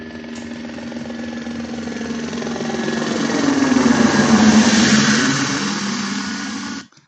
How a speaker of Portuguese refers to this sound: Helicópteros.